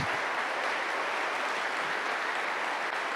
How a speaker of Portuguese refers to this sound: Aplauda mais forte. Músico, sobe aqui para mim, por favor. Pode aplaudir mais forte.